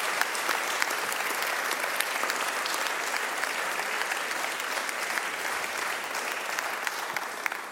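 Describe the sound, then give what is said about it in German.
Sustained applause from a large live audience at a stage recording of Divan, the Bayern 2 book magazine, a dense crackle of many hands clapping at an even, steady level for several seconds, with no voices standing out. “Wie man hört, live und mit viel Publikum.”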